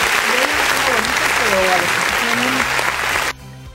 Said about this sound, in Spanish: ¿Aplausos? Aplausos. aplausos. Bueno, aplausos antes que nada.